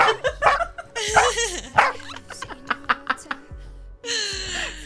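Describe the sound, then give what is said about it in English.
A dog barks in a quick, excited run of short, sharp barks and yips, loud, with a longer whining bark near the end. “Facebook watchdog.”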